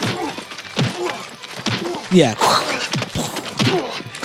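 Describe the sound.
Several sharp, punchy thwacks land one after another, the same stock punch sound effect reused in a film fistfight, fairly loud, with people talking over them.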